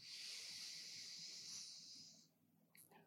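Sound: deep breath in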